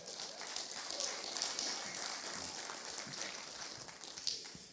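An audience claps for the band, steadily, a dense rattle of many hands with bright sharp transients, sustained evenly for several seconds without pause or talk.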